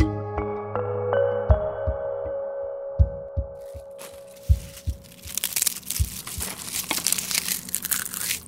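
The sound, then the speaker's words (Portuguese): Crunching of crisp packaged potato chips, starting with a few dull, spaced thumps and building into dense, crackly bursts of crinkling and munching over several seconds, with no one speaking. “Este é o som de estaladiças batatas fritas, daquelas de pacote.”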